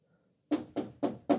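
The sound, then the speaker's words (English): Four firm, evenly paced knocks as a woman knocks on a man's room door in her house, each a solid thud with a brief decay, coming after a moment of near silence with nothing else around them. “Knocks on the door.”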